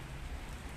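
Steady rain falls outdoors, heard from the front terrace of a house, a dense continuous hiss of drops spattering on surfaces with no pauses, fairly quiet, with no voices present.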